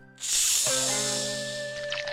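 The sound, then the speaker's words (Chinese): A cola bottle cap is twisted open in a convenience store with a sudden loud burst of hissing fizz that carries on steadily for about two seconds, with faint sustained tones playing underneath. “然后我又拿起一瓶可乐，打开瓶盖，”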